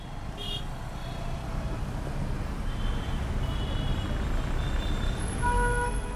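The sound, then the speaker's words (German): Dense late-afternoon rush-hour traffic rumbles steadily on the newly built marina by the port of Cotonou, heavy engines of trucks bringing goods to the ships droning under the din, with a few short horn toots and higher tonal beeps sounding through the mix. “Am späten Nachmittag herrscht hier Feierabendverkehr. Lastwagen wollen Waren zu den Schiffen bringen.”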